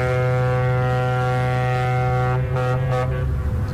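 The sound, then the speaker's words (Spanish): A loud, deep ship horn blasts steadily for several seconds, a sustained low droning tone rich in harmonics that holds without a break and stays dominant. “Pues ya sabéis, cuando escucháis esta bocina”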